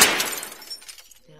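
A sudden sharp blast as a submachine gun is fired at a bathroom mirror in a movie theater, shattering it. A bright spray of glass fragments follows, tinkling and clattering for about a second before fading out, with no voices.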